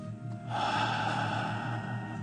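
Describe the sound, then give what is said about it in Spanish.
A single long, forceful breath during a breathing exercise, inhaled through the nose and exhaled through the mouth, airy and steady, rising after a brief quiet start and holding for nearly two seconds with no talking. “Inhalo y exhalo por nariz y saco por boca rápido y una profunda.”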